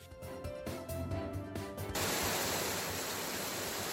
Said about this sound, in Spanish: Los micrófonos captando el sonido de la lluvia generalizada junto con tormentas en toda la península.